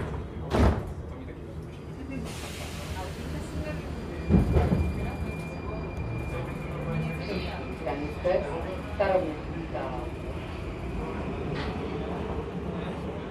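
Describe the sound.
A Prague metro train in the Czech Republic rides along with a steady rumbling drone and a faint high whine, punctuated by a couple of sharp clanks or door thuds; muffled voices murmur in the background.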